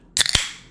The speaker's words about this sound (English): Then I'm really excited to crack open this can.